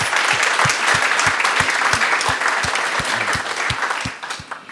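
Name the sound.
audience applause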